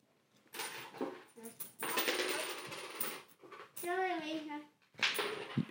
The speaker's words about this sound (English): I don't know if you heard any of that because he's just dropping quarters on the wood on the floor. So if you can pick all those up, son, so we can continue.